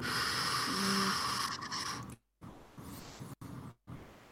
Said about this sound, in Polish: Ja wiem, ale ja lubię jak drukarka robi.